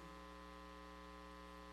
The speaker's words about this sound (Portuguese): Estamos ouvindo o barulho do vento com o ar condicionado.